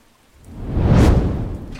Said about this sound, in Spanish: Creo que es momento de que entremos al castillo porque la lluvia no para y estoy escurriendo de agua.